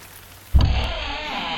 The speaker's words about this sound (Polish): Pamiętam, to było w środę. Deszcz mżył. Taki kapuśniaczek monachijski.